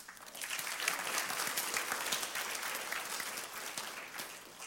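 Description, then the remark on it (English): A crowd applauds steadily for several seconds, the clapping dense and continuous at an even loudness, with no voices standing out. “We're going to give some applause first.”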